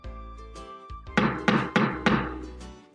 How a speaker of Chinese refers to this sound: 敲窗户的声音更响了。